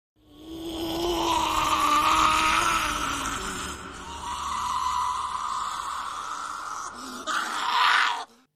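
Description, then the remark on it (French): Smergol's desperate, anguished cry: one long, strained, wavering wail with a groaning, gravelly edge, loud throughout and rising into a sharper outburst just before it stops. “Dans les cris de Smergol, nous percevons du désespoir, un pic d'anxiété et d'agitation, accompagné d'une pointe de tristesse qui va vite se transformer en colère.”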